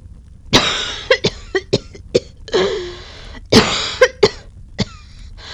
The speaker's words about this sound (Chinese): 在越来越浓的烟雾中咳嗽着，却还不住的扬声痛骂